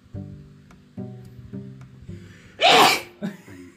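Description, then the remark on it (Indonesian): A single loud sneeze bursts out sharply after a few seconds of voiced laughter, followed by a brief quieter breath. “Itu barusan suara bersin ….”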